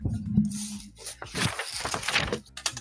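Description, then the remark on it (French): Paper being crinkled, a continuous run of irregular crackles and rustles lasting a few seconds, with a brief low hum at the very start. “C'est qui qui crie en du papier là Qui C'est qui qui crie du papier ah, là moi.”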